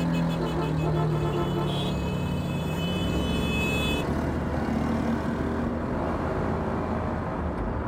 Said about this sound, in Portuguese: Ah, o cara veio parar do meu lado e fica buzinando a minha orelha, meu.